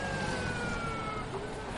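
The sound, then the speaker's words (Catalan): A police siren wails in a street full of police, a steady high tone gliding slowly over a thick wash of traffic and city noise, with no voices present. “Està tot el carrer ple de policia.”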